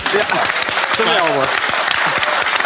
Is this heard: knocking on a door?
no